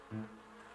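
A short burst of bee buzzing, a low droning hum that swells briefly at the start and then carries on as a softer steady buzz, with no voices.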